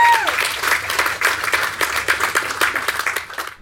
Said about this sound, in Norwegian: Dere må bare gi dere sjæl en applaus og skål og sånn faen.